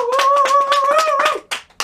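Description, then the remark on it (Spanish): Brisk applause from a small audience, rapid claps running together for over a second with a steady whistle-like tone held above them, then trailing off into a few scattered final claps. “Un aplauso.”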